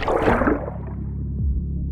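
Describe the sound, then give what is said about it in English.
Muffled underwater gurgling: a thick burst of bubbling water up front, then a low, murky rumble with a brief descending bubble near the end. Fairly loud, with no voices. “Go with me underwater now”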